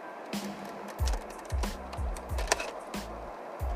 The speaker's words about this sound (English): What is that sound? What? That squeaking sound.